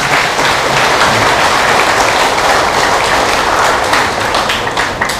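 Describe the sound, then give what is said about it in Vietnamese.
A big, sustained round of applause from a crowd, dense clapping that stays loud and steady for several seconds before easing slightly at the end. “hãy dành một tràng vỗ tay thật lớn để làm việc đó”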